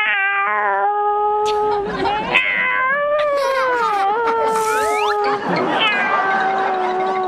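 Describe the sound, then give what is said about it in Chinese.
A person imitates a cat's mating call: one long, loud, drawn-out yowl that wavers and slides up and down in pitch for several seconds without a break, with no talking. “猫那个找谈恋爱找对象那个叫还不一样 啊 啊 那你说说， 你看猫正常叫法吧哈， 啊 就单身的哈 啊 叫法就是 那是女猫哈。”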